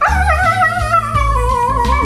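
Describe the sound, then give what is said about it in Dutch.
A dog vocalizes in drawn-out, whining, howl-like tones that rise and fall continuously for about two seconds, fairly loud, with no talking. “Hond? Hond, is dat, je, is dat je definitieve antwoord? Ja. Dat is correct.”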